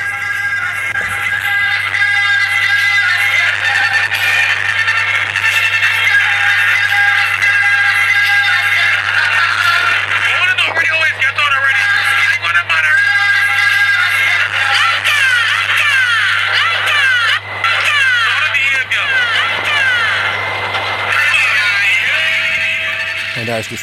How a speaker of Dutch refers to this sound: En ehm, in die busjes heb je stereo-installaties en die klinken ongeveer zo.